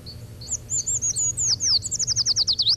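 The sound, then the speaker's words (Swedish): A very high-pitched treecreeper song, a thin series of rapid descending notes that speeds into a quick trill at the end, clear over a low background hum. It comes from a treecreeper pair nesting behind a door swung against a wall. “där är ett trädkryparpar som tänker häcka bakom en dörr igen som är svängd mot en vägg”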